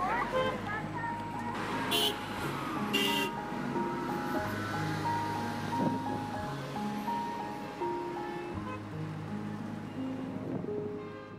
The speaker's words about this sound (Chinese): 嗯，今天早上上完课之后，走在马路上。录了刚才的那一段声音，因为我很怕知道成绩的当下捕捉不到当时的情绪和心情，嗯，所以在嘈杂的马路上录了当时最想告诉自己的话。